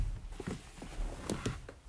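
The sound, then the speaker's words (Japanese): Scratchy, rustling sweeps repeat at an uneven pace as a cleaning worker sweeps fallen leaves with a broom outdoors in the neighbourhood in December, heard faintly through a second-floor window. “落ち葉を 吐いてあるんですよあの清掃係の方が。その音があの2階ここ2階なんですけど上がってきてて窓から音が聞こえています。”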